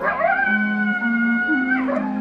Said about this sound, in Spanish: Solo se oye el aullido del coyote.